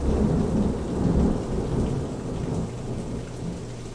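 Deep thunder rumbles steadily beneath a dense hiss of heavy rain, the low roar swelling and easing over a few seconds with no voices present.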